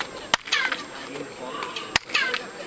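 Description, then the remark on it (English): Two sharp handclaps in front of a pyramid temple, each answered by a bright, descending chirped echo that sounds like a bird's call, fading quickly against a faint background hiss. “the sound comes back. Why sounds like a bird?”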